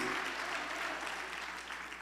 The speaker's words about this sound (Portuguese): Glória a Deus, aplauda Jesus.